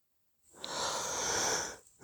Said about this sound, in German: Ja, und ein, ein Gähnen, eine Entspannung. Hm. Ja, das fühlt sich ganz gut an.